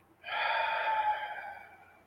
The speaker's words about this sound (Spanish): Respira profundamente por tu nariz. Exhala por tu boca.